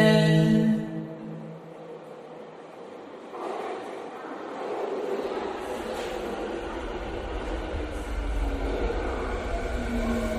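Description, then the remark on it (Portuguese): A crowded train runs along the rails with a steady rumble that deepens midway. It opens with a brief tonal chime or horn, and no one speaks. “trem que vocês estão está lotado.”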